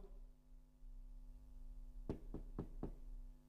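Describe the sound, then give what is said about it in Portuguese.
Four sharp, distinct knocks on a door, arriving in a quick uneven rhythm over a steady low electrical hum, with no voices. “Às vezes eu batia lá na porta da pessoa.”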